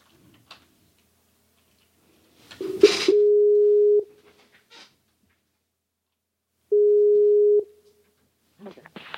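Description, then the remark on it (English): A telephone dial tone sounds twice while someone calls back, each a steady, fairly loud electronic beep lasting about a second, with a few seconds of silence between them, just after a brief handling clatter. “I'm going to call you back one more time.”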